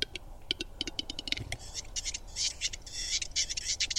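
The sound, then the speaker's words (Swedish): A western capercaillie calls: a run of sharp, accelerating clicking knocks, then a dry, raspy scraping and grinding that carries on to the end, with no voices present. “Så här låter en tjäder.”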